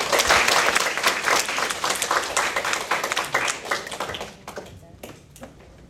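A crowd applauds loudly with dense, rapid clapping for about four seconds, then it thins out to a few scattered claps before fading.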